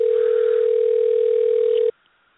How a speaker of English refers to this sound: I hear someone dialing in, so maybe we have a surprise.